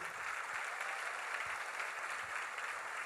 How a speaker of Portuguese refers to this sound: Ela, aplaude a Jesus para valer.